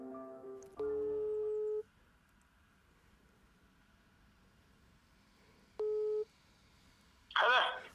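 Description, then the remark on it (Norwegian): A telephone ringback tone of an outgoing phone call, made on the last Wednesday in April, purrs twice down the line, each steady buzz lasting about a second with a long quiet gap between, followed by a short, rough burst of sound at the very end. “Den siste onsdagen i april ringer jeg.”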